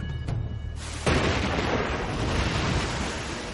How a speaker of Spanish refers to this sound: Zeus apuñala el cielo con sus rayos y zarandea las naves persas con vientos huracanados. Glorioso. Mar azota con furia los barcos persas y ahoga la tripulación.